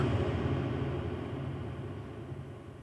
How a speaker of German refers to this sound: Ich wollte den Hall so lange wie es geht stehen lassen. Deswegen habe ich nichts gesagt.